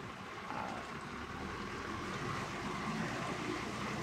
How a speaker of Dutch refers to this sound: Kijken of de vrachtwagen, de melkwagen komt er eh, langs. Even kijken of hij er langs kan. rijdt keurig om de camera heen. Dat is wel eh, goed hoor. Netjes.